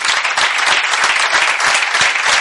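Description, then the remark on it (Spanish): A crowd claps steadily and loudly, a dense wash of overlapping hand claps with no pauses, sustained evenly throughout with no voices standing out. “Un aplauso para él.”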